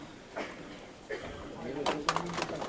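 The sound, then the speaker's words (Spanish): Several hollow wooden knocks land at irregular intervals as the heavy wooden support legs (zancos) of a religious procession float are set down on the ground as it is squared up to a doorway, with a murmur of voices underneath. “Vamos a escuchar este sonido de los zancos que ahora hay que quitar.”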